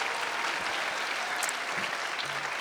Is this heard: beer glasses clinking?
no